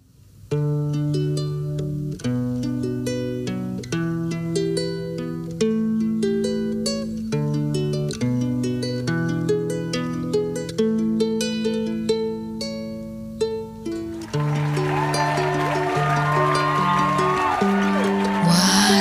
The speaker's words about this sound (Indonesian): Ia mengambil nafas panjang. Lalu, ia mulai memetik gitarnya.